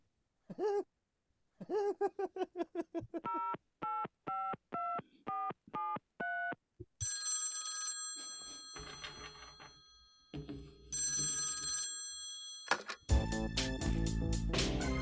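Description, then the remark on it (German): A quick string of telephone keypad tones dials a number in evenly spaced beeps, placing a call to a Swiss Federal Councillor, followed by bursts of bright electronic telephone ringing that grow louder and busier toward the end. “Telefon”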